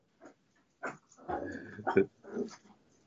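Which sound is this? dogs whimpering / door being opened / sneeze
dogs whimpering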